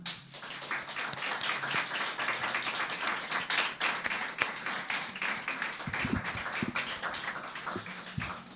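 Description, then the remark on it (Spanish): A crowd applauding steadily, many hands clapping in a dense, even patter that holds at a fairly constant loudness for about eight seconds without letting up. “Un aplauso para ti.”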